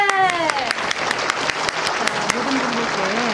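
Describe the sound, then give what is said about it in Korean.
Loud, steady applause from a crowd welcoming Apink singer Jung Eun-ji as the 12 o'clock DJ of the radio show Gayo Gwangjang, dense clapping with a voice briefly cheering over it near the start. “그해 가장 핫한 스타에게만 준다는 2020 브랜드 DJ 부문 대상을 수상하고 가요광장 1년 돌잡이를 훌륭하게 소화한 12시의 젊은 피 정은지 뜨거운 박수로 맞아주시죠.”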